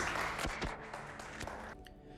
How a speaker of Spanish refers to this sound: Dele la aplauso al Señor, hermanos.